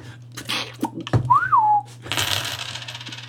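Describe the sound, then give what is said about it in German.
Coins clink and rattle as someone rummages through a wallet for small change, with a brief rising-and-falling whistle in the middle, followed by a longer jingling shuffle of loose change. “Ja, ah, ich gehe mal kurz im Portemonnaie runter auf Kleingeld, weil ich glaube, in der Sendung brauche ich heute mehr Geld.”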